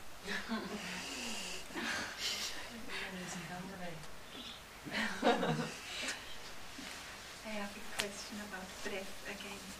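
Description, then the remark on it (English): Short, labored breaths come in quick, uneven bursts during a breathing exercise, wheezy and strained, with groaning voice-like sounds mixed between the gasps. “You are difficult because you have not practiced your breathing for a long time and you are short of breath and you feel insecure when you breathe.”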